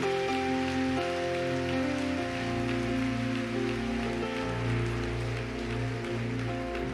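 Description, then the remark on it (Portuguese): A church audience applauds the presence of God in a steady, dense wash of clapping that holds for several seconds, with sustained keyboard chords ringing underneath and no one speaking. “Prazer e satisfação, vamos aplaudir com satisfação a presença dEle.”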